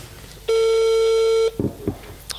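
A single steady electronic ringback tone of a phone call, holding one mid-high pitch for about a second before cutting off, followed by a couple of faint clicks and soft rustles.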